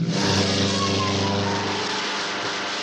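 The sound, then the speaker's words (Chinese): A small propeller plane's engine starts and roars loudly and steadily as the plane takes off over pursuing police cars, a thick droning hum with a low throbbing pitch that holds for the whole stretch, easing only slightly toward the end. “杜秋开动了发动机，终于从要阻拦他的警车上面腾空飞起。”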